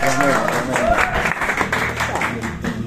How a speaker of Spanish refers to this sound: Lo recibimos con unas fuertes palmas